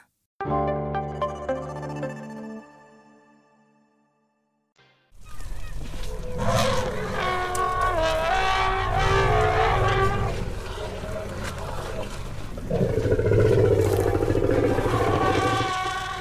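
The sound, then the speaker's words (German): Elephants calling to one another, with loud overlapping honks and trumpets over deep rumbles for about eleven seconds, after a sustained fading tone and a short silence. “Hier hören wir, wie Elefanten miteinander kommunizieren.”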